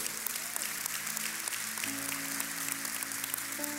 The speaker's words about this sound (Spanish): ¿Se dieron cuenta? Den un aplauso al Señor mientras nos ubicamos.